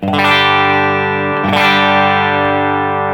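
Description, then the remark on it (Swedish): An electric guitar played straight through a 15-watt EL84 tube amp head with no pedals strikes two chords about a second and a half apart, each ringing out loud and full with a slightly gritty edge, alone. “det här som sagt var en 15 watts el 84 topp”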